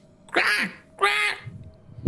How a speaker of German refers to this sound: Die Raben hört ihr oben